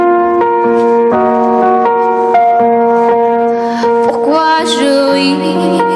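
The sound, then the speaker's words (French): A live cover of a French pop song, sung by a woman, plays loud and steady, with sustained melodic notes shifting from pitch to pitch and a brighter, fuller swell near the end. “vous propose d'écouter ce live sur Radio Tintin”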